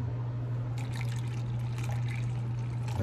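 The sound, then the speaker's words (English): Coffee pours from a pot into a cup in a steady trickle lasting a few seconds, over a constant low hum, with no one speaking. “Okay, we'll pour this just a little bit more.”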